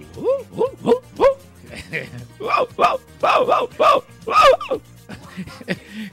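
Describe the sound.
A person imitates a dog barking, producing a rapid series of about a dozen loud bark-like yelps with a brief lull in the middle.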